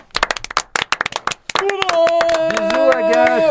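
A few men clap their hands in a quick, uneven burst of sharp slaps, applauding the absent Agathe; after about a second and a half, a bright tonal melody starts and plays over the continuing clapping.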